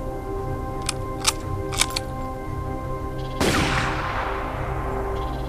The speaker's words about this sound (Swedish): En av fångarna flyr. De röda skjuter efter honom, men träffar inte.